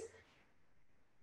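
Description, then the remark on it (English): A video call's audio drops out as the connection freezes: a brief sound fades into about a second of faint, steady hiss, then audio abruptly snaps back with a short, loud burst. “Oh, you froze again.”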